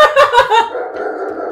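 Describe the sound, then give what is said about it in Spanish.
A dog lets out three quick, loud barks in a row, then trails into a longer, steady whining yelp, and no one is talking. “Mira, y el perro lo confirma.”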